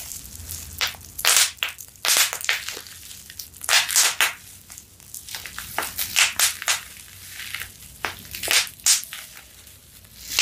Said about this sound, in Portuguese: Ele vem assim. Uma caixinha. Olha! veio plástico bolha. Peraí. Peraí, peraí.